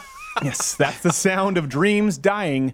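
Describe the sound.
Cats meow in drawn-out, wavering cries that rise and fall one after another, fairly loud, while a person laughs and speaks over them.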